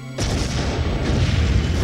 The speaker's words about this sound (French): une série de déflagrations l'oblige à se jeter à terre. Plus loin, il aperçoit des tireurs embusqués. Le canon d'un loupara, un fusil à double canon scié, tire le coup qui achève son nouveau gardien.